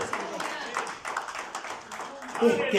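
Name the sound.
audience applauding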